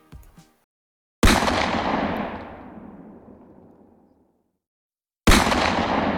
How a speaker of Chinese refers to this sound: 有枪声，快趴下！突然间，枪声不断响起。弓箭从两边的山上射下来，我身边的人一个一个倒了下去。